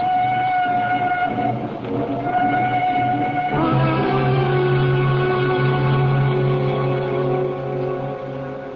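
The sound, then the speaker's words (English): A train rumbles steadily while a sustained, multi-toned whistle sounds over it, shifting pitch midway and holding loud throughout, with no voices. “There's a train which will bring me into Waterloo at 8.”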